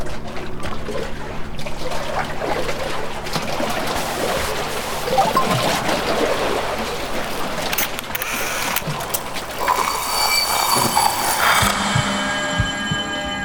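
Waves lap steadily against the shore, a continuous wash of water with small trickling splashes and a faint tonal hum in the background. No one speaks.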